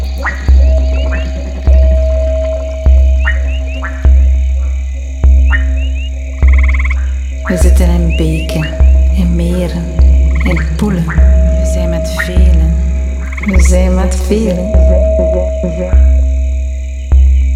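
A loud chorus of croaking frogs with a steady low throb about once a second, overlaid by rapid rattling calls that grow denser and busier in the middle stretch.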